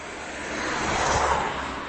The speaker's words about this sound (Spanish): aquí en Málaga, y otro coche bastante ruidoso.